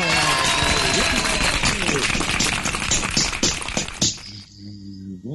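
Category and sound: sound effect, applause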